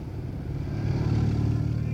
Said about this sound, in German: Pass auf, die Autos